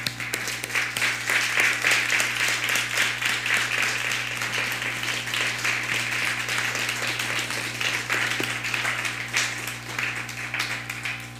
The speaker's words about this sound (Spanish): Un fuerte aplauso.